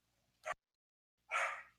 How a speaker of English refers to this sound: I'm sorry, this dog is going crazy right now.